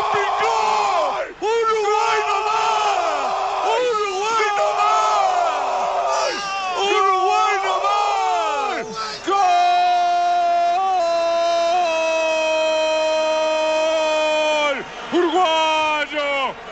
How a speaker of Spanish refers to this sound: Abreu. El gol más lindo que me tocó gritar. El gol que grité con más ganas. Gol de Abreu.